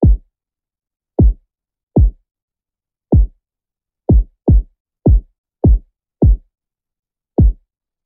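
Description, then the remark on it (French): Ten deep, punchy kick drum hits with a quick downward pitch drop, played alone in an uneven, syncopated pattern to start a beat. Each thump is loud and short. No other instruments or voices. “moi, je tape direct avec le, kick.”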